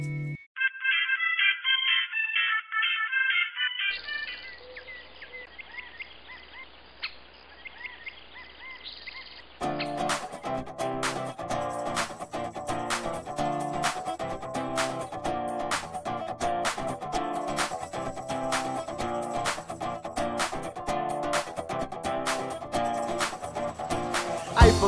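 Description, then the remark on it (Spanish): An upbeat worship song opens with a chirpy, high electronic intro, then a full band crashes in loudly after about ten seconds, keeping a steady, energetic beat to the end. “Primero quiero invitarte a escuchar este canto eh, que me parece muy jovial”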